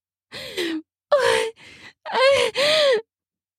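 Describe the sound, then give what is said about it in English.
A breathy woman's voice lets out several drawn-out gasps of desire in quick succession, each rising and falling in pitch, with a softer exhale between them and no words spoken. “I gasp with desire.”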